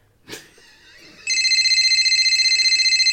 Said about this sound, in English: That phone won't stop ringing. That phone won't keep That phone going. won't stop ringing. It won't stop ringing. At all. It won't stop ringing.